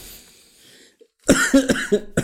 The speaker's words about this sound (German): Nach all den Wochen mhm. ist hm. immer noch Husten.